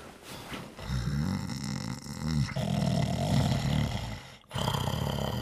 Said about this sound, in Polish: Nie wstawaj, tylko się obróć na lewy bok. Na tym strasznie chrapiesz.